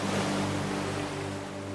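ocean waves

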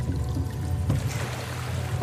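gentle lapping waves

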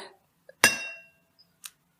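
wine glasses clinking

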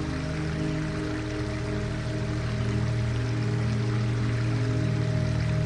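flowing river water

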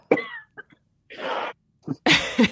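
coughing fit

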